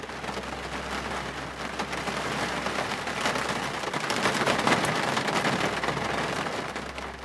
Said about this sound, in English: 挪亚看着天空，他说：“啊， 哦，it's raining， 开始下雨了。